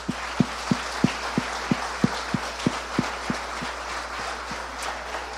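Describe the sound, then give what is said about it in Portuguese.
Steady rhythmic clapping at an evening gathering of Hangar 7 Church, about a dozen sharp claps evenly spaced in quick succession, fairly quiet over a faint background hiss, with no voices. “Ladies and gentlemen, senhoras e senhores, dê um aplauso para essa noite maravilhosa.”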